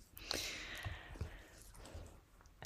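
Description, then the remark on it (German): A dog lying right up against the microphone smacks its lips and breathes: a few soft, wet clicks scattered through quiet, breathy huffs, with no one speaking. “Vielleicht hört ihr auch was atmen. Schmatzen auf jeden Fall.”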